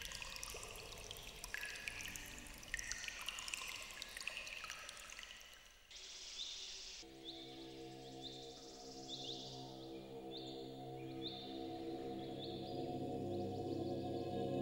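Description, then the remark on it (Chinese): Water seeping from the mountain flows from a carved dragon's mouth in Yuanjue Cave, Baoding Mountain, Dazu Rock Carvings, China, dripping into a metal alms bowl held up by a carved old monk; each drop gives a bright, clear ring; after a brief lull, a sustained resonant hum rises beneath steady repeating drips, with no one speaking. “水入钵中，发出清灵的响声，更显得这座佛教殿堂的寂静和圣洁。”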